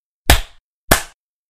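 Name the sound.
hand clap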